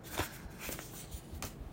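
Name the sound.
paper letter being handled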